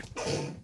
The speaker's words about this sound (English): I had a cold last week, and I feel like I've still got like a post nasal drip thing going on, and I'm sneezing.